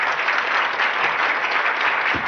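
Steady audience applause, a dense wash of many hands clapping at an even, fairly loud level throughout, with no voices standing out.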